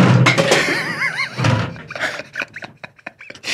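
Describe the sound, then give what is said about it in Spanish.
An empty Monster energy drink can drops and hits the floor with a loud thunk, rings briefly, lands with a second thud, then rattles and clatters in quick, uneven taps as it settles. “Oye, ¿qué se cayó? Pues el monito y. ¿Y el monster?”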